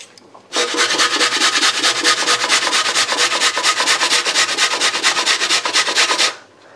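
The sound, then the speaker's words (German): Potatoes being grated on a grater: a steady run of quick, rasping scrapes, loud and harsh, repeating in a fast, even rhythm for about six seconds with no talking. “man merkt auf jeden Fall, dass die Kartoffeln, wenn man die dann über die Reibe zieht, relativ schnell dann auch einfach Wasser ziehen.”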